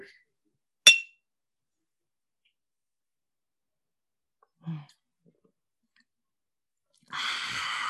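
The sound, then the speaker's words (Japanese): A single bright, sharp clink of sake glasses touching in a toast with the brewery's flagship sake during a Zoom session, followed by a soft low knock a few seconds later and then a burst of quiet breathy noise. “その中でも代表銘柄、あの、大花銀城酒、こちらでまず乾杯からスタートしてもよろしいでしょうか。”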